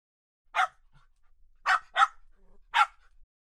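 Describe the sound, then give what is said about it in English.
A dog barks four times, fairly loud, with a quick double bark in the middle and short pauses between the others. “Then he barked at me, and we went out for a walk together.”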